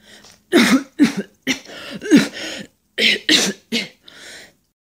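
A king whose health is failing is seized by a harsh, prolonged coughing fit: about seven loud, rasping coughs in quick, uneven bursts, with a short break partway through, ending in a fainter wheezy breath. Prominent, with no talking.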